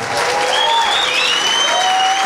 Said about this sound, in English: And ladies and gentlemen, give a round of applause to Thomas Hartmann. Give him a hand. And Judah Friedlander, ladies and gentlemen.